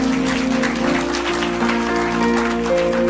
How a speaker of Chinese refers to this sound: 相信的拍手，把荣耀归给主啊！